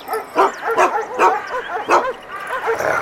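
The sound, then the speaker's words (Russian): A large chained guard dog by its kennel barks repeatedly and loudly, a rapid, insistent string of harsh barks about every half second with no talking over it. “Да здесь он, у будки Знакомиться с хозяйской собакой Так, вы близко не подходите О, такая немаленькая собачка И цепь у нее серьезная”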